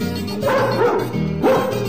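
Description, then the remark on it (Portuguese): A dog barks twice, about a second apart, each a loud, harmonic woof over a steady low background hum. “Pega ele, cachorro.”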